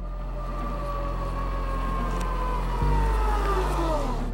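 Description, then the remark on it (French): An electric car motor whirs with a smooth, high tonal whine that gently shifts in pitch over a steady low hum, continuous, with no voices; the battery drives the stator, which turns the rotor to move the vehicle. “Mais le mécanisme de son moteur est délicieusement silencieux, ou presque.”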